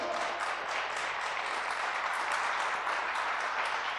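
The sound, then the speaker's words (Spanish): An audience applauds steadily for Jesus, a dense wash of many hands clapping at a fairly even loudness throughout, with no voices standing out. “Dale ese aplauso a Jesús, por favor.”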